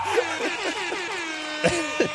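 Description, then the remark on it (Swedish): A brief, jaunty quiz jingle of buzzy, horn-like toots, a run of quick sliding notes played loud, ending with two sharper honks. “Jag måste spela en jingle för dig.”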